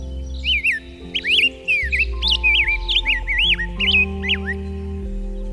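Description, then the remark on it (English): A grosbeak repeats quick, sweeping chirps, about a dozen in a lively run, loud over a steady musical backing of sustained low tones. “you dreamt up this bird for us to see”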